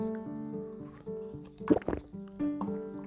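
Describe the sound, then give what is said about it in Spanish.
A quick sip of Pepsi, with a few soft slurping gulps and a faint liquid gurgle over a low hum. No one speaks during it. “Permiso, trago de Pepsi.”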